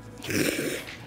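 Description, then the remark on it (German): A single sneeze, a short breathy, hissing burst that swells and fades within about a second, with no talking around it. “Gesundheit?”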